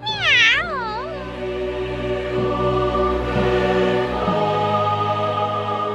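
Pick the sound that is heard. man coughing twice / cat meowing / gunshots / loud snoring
cat meowing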